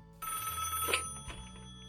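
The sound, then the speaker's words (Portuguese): A telephone rings once with a bright, harmonic electronic tone, clear, with a low hum underneath and no voices, as a caller from Curitiba phones in. “Vocês vão ouvir agora, tá ligando aqui”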